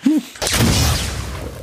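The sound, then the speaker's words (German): A brief tonal chirp, then a sudden loud explosion bursts in and fades into a long, rumbling, crackling decay that carries on to the end. “Das war eine Explosion, weil, was ist passiert,”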